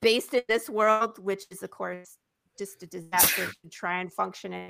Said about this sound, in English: Bless you.